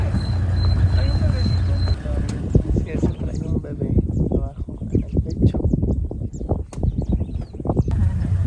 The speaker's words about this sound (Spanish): vean esos nidos, son los más grandes que hace un pájaro de aquí que se llama hammercock. Miren, aquí están los hammercocks, los que hacen el nido gigante. Están chistosos.